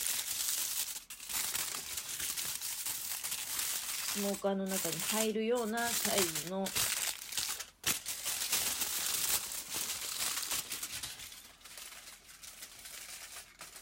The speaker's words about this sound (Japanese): でナッツの方はアルミ箔でまあお皿みたいな感じでねアルミ箔折り紙して